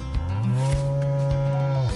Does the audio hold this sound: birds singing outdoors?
no